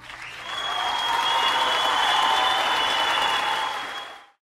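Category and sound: crowd, ovation applause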